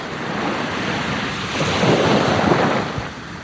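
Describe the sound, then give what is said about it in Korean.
A wash of ocean surf with a steady windy roar, swelling into a louder breaking wave in the middle before easing back. No voices, just the broad rushing noise of water. “그때 내 마음속으로 파도가 밀려왔다.”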